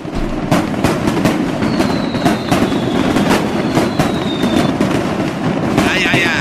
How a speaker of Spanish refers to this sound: de Tultepec, traen sus cohetes, sus, aquí la pirotecnia, fireworks.